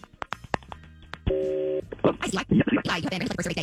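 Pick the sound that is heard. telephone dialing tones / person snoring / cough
telephone dialing tones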